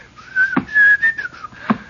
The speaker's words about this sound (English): See, I'm walking along 6th Avenue. It's in New York. And, you know, I'm just whistling between my teeth. I'm just walking along, see?